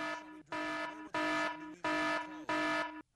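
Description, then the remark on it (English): A harsh, buzzy horn, played as a warning before a trivia question, blares in four long, steady blasts with short gaps between them, loud and rich in harmonics, with no voices over it. “the horn is a warning, which means listen up because something in here seems, hmm, I don't know.”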